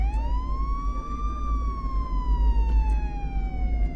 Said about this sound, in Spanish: En este punto, las sirenas empezaron a enclaustrar todo el tumulto que rodeaba el campus.